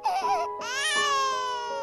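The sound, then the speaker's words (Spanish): A newborn baby cries loudly, two shrill wailing bursts separated by a brief gasp, the second cry long and sustained with no other voices. “Nacemos llorando”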